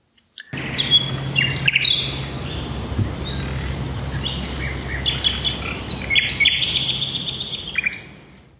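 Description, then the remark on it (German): A migratory songbird that flies to Africa sings in short, bright chirping phrases over a steady, high insect or cricket drone, with a low hum underneath; an outdoor scene with no talking. “Es ist ja ein Zugvogel.”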